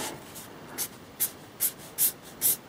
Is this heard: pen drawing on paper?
yes